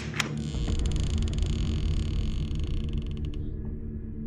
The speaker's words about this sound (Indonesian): Novi tersentak kaget ketika dia melihat pintu kamar itu tiba-tiba sedikit terbuka.